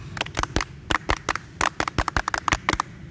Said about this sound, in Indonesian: Tepuk Pramuka.